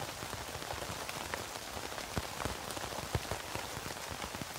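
Steady rain patters on a tent, a dense hiss of drops with scattered sharper taps rising above it, continuous and fairly loud throughout with no voices.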